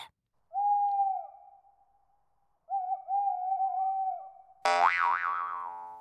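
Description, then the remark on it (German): An owl hoots twice in long, steady, drawn-out tones, then gives a louder, harsher wavering call at the end. The owl calls alone and clearly, with silence between the hoots. “Wie zur Antwort erscholl der Ruf einer Eule.”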